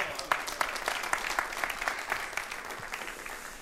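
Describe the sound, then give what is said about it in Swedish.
An audience at a sermon claps for the preacher's two helpers, a steady, dense patter of many hands at an even level throughout, with no voices rising above it. “ni kan ge dem en applåd.”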